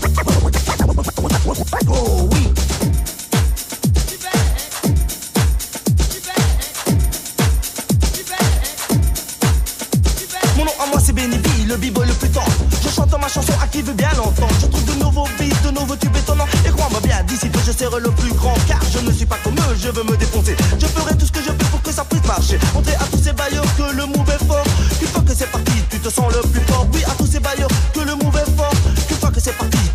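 A loud rap track plays, opening with a steady, pounding kick-drum beat that then fills out into a denser, continuous groove with layered sounds over it.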